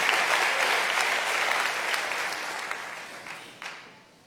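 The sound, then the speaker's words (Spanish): An audience claps steadily for the Lord, a dense wash of many hands that stays strong before gradually tapering off near the end, with a few isolated claps standing out as it fades. “Hermanos, déselo fuerte al Señor, déselo fuerte al Señor.”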